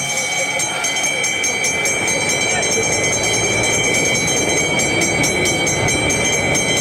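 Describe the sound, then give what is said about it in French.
A bell clangs rapidly and continuously, marking the final lap of the 2023 Tour de France cycling race on the Champs-Élysées, its bright ringing tone steady throughout, rising over a loud, rushing background of crowd noise. “Vous l'entendez la cloche”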